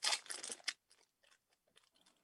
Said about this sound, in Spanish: Esta es la, máscara. Entonces, acá está en el envase, lo vamos a abrir.